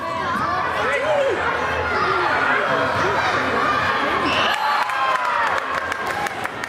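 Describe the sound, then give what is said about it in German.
Spectators cheer on young players and chatter loudly and continuously during the last games of the youngest teams at an indoor football tournament at the Riad sports facility in Sargans. Shrill raised voices, whistles of excitement and occasional thuds of play sit beneath the steady crowd noise. “Die Zuschauerinnen und Zuschauer sind der Nachwuchs am Anführen.”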